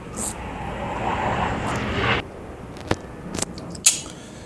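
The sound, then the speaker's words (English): A large airplane roars past overhead, a loud broad rumble that fills the first two seconds and then cuts away, followed by quieter surroundings with a few sharp clicks. “Shit, that was a plane passing there.”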